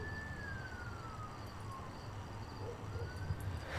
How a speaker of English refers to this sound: I don't know if you can hear that siren, but there was a siren going.